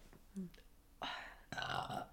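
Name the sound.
burp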